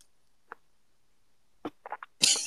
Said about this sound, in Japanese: 咀嚼音が、咀嚼音もでかいね